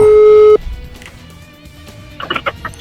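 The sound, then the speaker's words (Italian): A telephone ringing tone on an outgoing call from a radio station to a man from Naples: one loud, steady electronic beep lasting about half a second, then a quiet line with faint background noise and murmurs. “Radio Cappuccina abbiamo chiamato questo qua napoletano”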